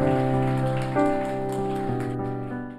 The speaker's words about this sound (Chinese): 我们一起掌声将荣耀归给我们的神。